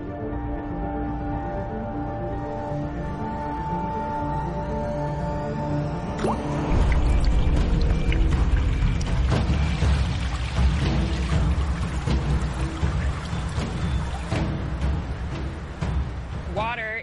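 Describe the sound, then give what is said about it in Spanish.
Water splashes and pours steadily in a busy rush with scattered drips, starting about a third of the way in after a sustained tonal background that continues underneath. “El agua tiene un efecto enorme.”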